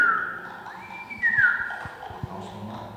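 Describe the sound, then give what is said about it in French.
A sustained, fairly loud human whistle that slides upward and holds, fed into an audio feedback system so that it takes on a ringing, processed quality, over soft low clicks and rumbles for about three seconds. “Vous aviez fait ça euh, tout à l'heure avant qu'on soit à l'antenne, de, siffler et de voir ce que ça donne comme son”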